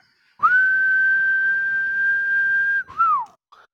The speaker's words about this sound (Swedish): Vad var det du visslade åt?